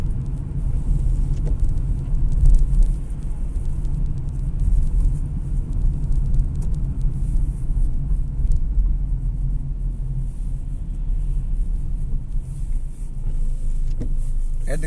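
Steady low engine rumble from inside a moving car, a continuous deep drone with road noise filling the cabin throughout, occasional faint clicks and no one speaking.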